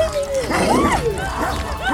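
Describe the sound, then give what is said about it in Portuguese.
A huge rabid hunting dog barks and snarls as it chases a child, its sharp yelping cries rising and falling in quick, agitated bursts that run continuously for about two seconds. “O cão raivoso alcançou o Joseph antes que ele chegasse ao muro para tentar escapar.”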